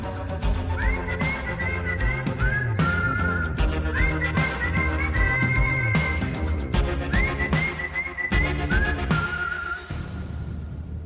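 A human whistles a high, sliding melody in a song's interlude over a full, loud band backing, the phrases swooping up and repeating several times before the music fades at the end.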